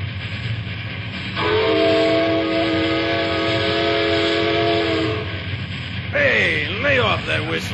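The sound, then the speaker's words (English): A train rumbles steadily on the rails, a long, loud steady whistle blaring over it for several seconds, followed by a brief wavering, voice-like sound near the end. “Somebody's got to get back up there and stop that train before it drops down here and completely messes itself and everything else up.”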